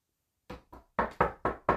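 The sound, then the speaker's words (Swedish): Six quick knocks on a wooden surface for luck: two lighter taps followed by four firmer, louder raps in a steady rhythm, with no voices. “jag måste knacka för annars, ja, ja precis.”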